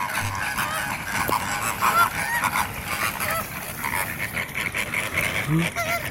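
A dense chorus of birds calls across an open wetland at the Cañada de los Pájaros nature reserve in La Puebla del Río, Seville province, Spain. Goose-like honks and scattered cries overlap continuously, steady and busy throughout, with no single call standing out.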